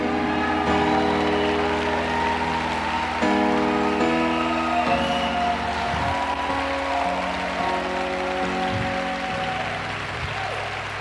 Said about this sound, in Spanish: Y ese es un aplauso de gratitud, cuando Dios vio a su Hijo Jesús y te vio a ti, te escogió a ti.